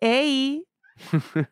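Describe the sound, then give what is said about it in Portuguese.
A cat gives one drawn-out, fairly loud meow, followed after a short pause by a few seconds of someone talking. “Hoje vocês vão ouvir ela miando muito no fundo, porque ela quer carinho.”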